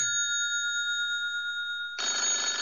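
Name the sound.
telephone ringing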